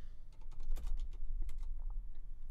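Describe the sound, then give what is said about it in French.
Rapid clicking of keys on a computer keyboard, a steady burst of typing with irregular taps, low in level over a faint background hum. No one speaks. “Je, me rappelle à quel point je déteste écrire sur ce clavier.”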